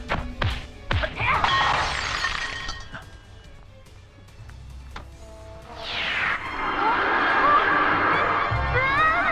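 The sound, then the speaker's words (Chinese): In a film scene, a villain smashes a demon-revealing mirror: sharp crashing hits and bright shattering glass at the start, then a rising sweep into a loud, sustained shimmering roar of dramatic effects with faint vocal sounds. “大 boss 找到机会，施法把东西抢过来，毫不犹豫地砸了镜子。”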